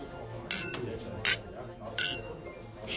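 Village bar ambience: three bright, short glass clinks ring out at irregular intervals over a low, steady murmur of indistinct chatter from men at the regulars' table.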